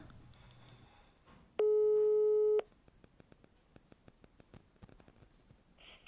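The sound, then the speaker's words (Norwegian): One steady electronic ringing tone from an outgoing mobile phone call in Norway that goes unanswered to Telenor voicemail, loud and about a second long, followed by quiet line noise and faint irregular clicks. “Jeg meg på om han kommer til å ta telefonen denne gangen.”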